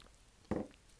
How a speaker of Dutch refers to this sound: Nou, oh, ik neem even een slokje hoor.